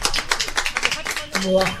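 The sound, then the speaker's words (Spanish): A crowd applauds for a band with dense, rapid clapping that keeps up steadily, and a sustained voice rises over the clapping toward the end. “Un aplauso para … que está acá con nosotros.”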